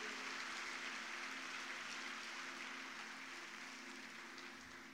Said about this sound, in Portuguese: Se é para Ele, pode aplaudir bonito.